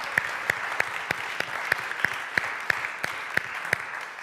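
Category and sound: crowd, church audience applause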